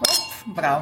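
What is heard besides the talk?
wine glasses clinking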